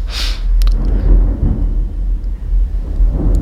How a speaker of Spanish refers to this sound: Está lloviendo en mi casa y se oyen los rayos, lo cual está dando mucho dramatismo a lo que te estoy contando.